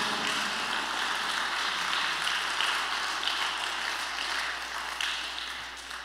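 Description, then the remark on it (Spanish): Steady, sustained applause from an audience applauding the Lord for His mercy, a dense wash of overlapping claps that stays fairly loud and even for the whole stretch with no voices standing out. “Duro, duro, siga aplaudiendo.”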